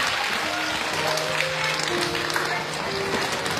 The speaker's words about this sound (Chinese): 你们的掌声是给我的还是给易先生的呀？